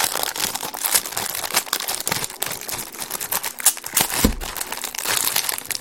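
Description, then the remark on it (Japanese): A Manuka honey biscuit package crinkles and crackles steadily as it is opened, with a dense run of sharp, rustling plastic clicks and pops that stay fairly loud throughout, and no talking. “マヌカハニーこれは美味しそうですねハニーとの蜂蜜が入ってますんでねちょっと揚げてみたいと思います”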